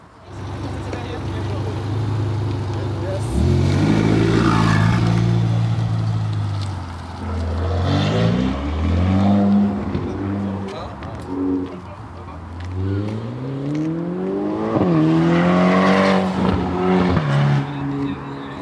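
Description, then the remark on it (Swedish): A white Ferrari sports car engine revs hard during a test drive, its pitch sweeping up and down through several gear changes as it accelerates and drives off past, loud and throaty with no talking. “Det där var ljudet av en Ferrari, en sportbil av det vassare slaget.”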